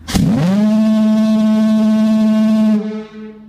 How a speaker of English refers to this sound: The foghorn is low in comparison to the air raid siren because of where it has to be placed.